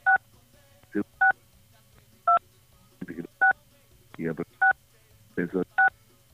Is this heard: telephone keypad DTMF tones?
yes